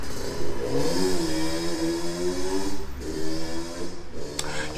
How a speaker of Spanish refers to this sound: Ahora otra moto, otra moto, otra moto, pero.